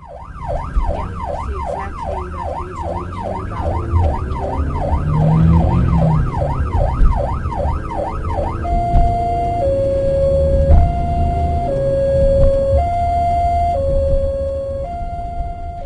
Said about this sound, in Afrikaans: Waar sirenes loei?